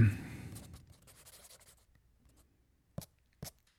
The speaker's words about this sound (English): Hold on, I'm writing this down.